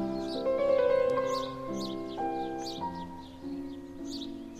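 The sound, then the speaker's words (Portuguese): Small birds chirp in quick, repeated bursts every half second or so, riding over a steady bed of sustained, droning musical tones. No one speaks. “É deixar os passarinhos.”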